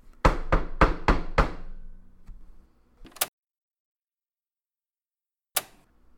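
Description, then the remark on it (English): Five quick, sharp knocks on a door in a fast run, then a pause and one more knock, followed after a longer silence by a final single knock. Fairly loud, with no talking. “No one was at the door.”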